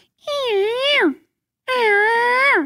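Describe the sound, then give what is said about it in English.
Two drawn-out, nasal whining calls, fairly loud, each wavering in pitch before sliding down, with a short pause between them; a person imitating an elk cow's estrus whine call, used outside of the rut. “It seems weird, like a more of an estrus whine call outside of the rut.”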